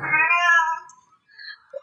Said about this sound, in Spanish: Hasta Jarvis este, protestó. Sí, exacto, güey. Exacto. Gatito dijo, ¡Mierda!